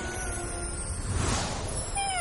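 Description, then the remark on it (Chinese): A white short-tailed cat meows, with a rising, high-pitched cry toward the end, over a steady tonal hum and a brief whooshing swell in the middle. No one speaks. “一下子就变成了一只白色的短尾猫。”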